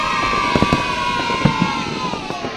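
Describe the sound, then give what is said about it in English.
Fireworks crackle and pop in scattered bursts over a steady, loud crowd roar with cheering at a free fireworks event in Milford Haven on Tuesday, 5 November, the bangs sharp against the continuous wash of voices. “The Milford Haven Roundtable Free Fireworks Event, Tuesday, the 5th of November.”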